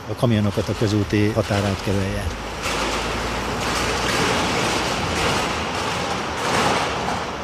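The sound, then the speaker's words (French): A voice at the start gives way to a steady, loud rushing rattle as a dump truck pours gravel in a continuous stream around the concrete sleepers carrying the rails of a single-track railway line being upgraded to double track, sustained for several seconds. “Un camion ben déverse du gravier autour des traverses en béton qui portent les rails.”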